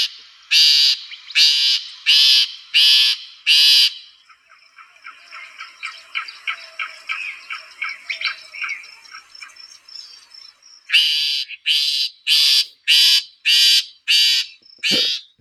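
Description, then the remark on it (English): Harsh, buzzy loggerhead shrike calls given in loud repeated bursts, separated by a stretch of quieter rapid chattering, then another evenly spaced series of rasping notes, clear with no talking. “but you get to the calls that really is is distinctive and and, and i think is it fits the behavior of this bird so here we go Beep.”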